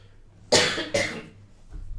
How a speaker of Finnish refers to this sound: Yskin sittenkin.